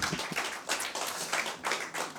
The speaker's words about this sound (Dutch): Ja, applaus voor jullie.